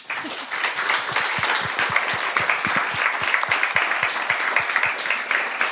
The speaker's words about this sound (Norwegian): Og så kan vi jo gi en eh, applaus eh, så langt.